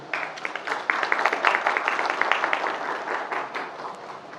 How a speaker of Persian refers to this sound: یه تشویق بکنه خودتونو